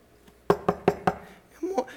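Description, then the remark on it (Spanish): Four quick, evenly spaced knocks on a door ring out sharply, followed by a brief murmur of a voice. “Mi amor, vete a ver la puerta que alguien está ahí.”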